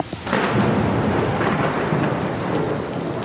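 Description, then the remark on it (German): A thunderstorm passes over Popayán in autumn 2023, roaring with steady, heavy rain and deep rumbling thunder, loud, filling the whole stretch without any voices. “Kurz darauf zieht ein richtiges Gewitter über Popayan hinweg.”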